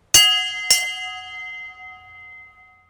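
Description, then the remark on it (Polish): A church bell rings alone on a Sunday, two strikes in quick succession followed by a long, shimmering resonance that slowly fades into quiet. “Niedzielny dzwon.”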